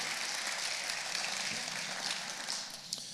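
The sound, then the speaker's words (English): An audience claps their hands to God one morning in a dense, steady wash of overlapping claps that holds for a few seconds and eases slightly at the end, with no voices over it. “Somebody clap your hands to God this morning.”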